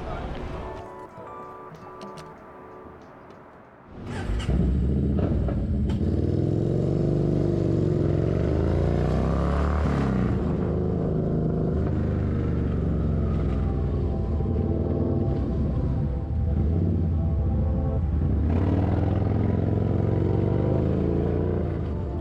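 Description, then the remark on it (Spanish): A naked motorcycle's engine roars steadily while being ridden, its droning pitch rising and falling with throttle changes over a rough, rumbling wind noise, following a few seconds of quieter clattering at the start. “Todo ello se revela frente a mí mientras domo un motor desnudo enganchado a dos ruedas.”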